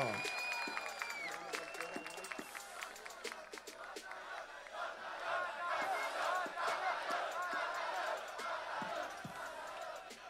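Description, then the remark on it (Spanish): A crowd in Valparaíso breaks into loud, sustained applause at the end of a freestyle rap battle round, lasting about ten seconds, thick with rapid clapping, cheering voices and a few high whistles near the start. “Aplauso fuerte, Valparaíso.”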